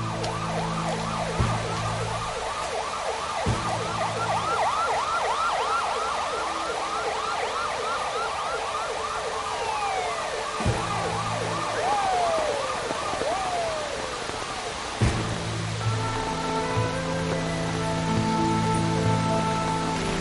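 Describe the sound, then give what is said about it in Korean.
A police car siren in a scene from the film 인정사정 볼 것 없다 (Nowhere to Hide) wails in rapid, repeating rising-and-falling cycles, then slows into a few long sweeping tones over a steady low rumble, with deeper sustained tones taking over toward the end. “그때 경찰 차량의 사이렌이 울리고 범인을 향해 총을 겨눕니다.”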